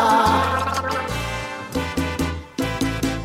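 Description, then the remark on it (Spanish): A person gargles loudly with a voiced, pitched tone, with a long sustained stretch at first, then a series of short bubbling pulses. No speech is heard. “Hace gargara, con todo lo que encuentra, hace gargara bebe café, hace galgara, con leche caliente, hace galgara, hace galgara, con jugo naranja, hace galgara, no puede dejar de hacer galgara, yo voy a tener que internarla.”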